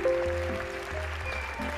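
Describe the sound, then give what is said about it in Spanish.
A brief burst of crowd applause, dense steady clapping for under two seconds at moderate volume, with a faint hum underneath and no one speaking. “Claro, faltaba de su lluvia de aplauso.”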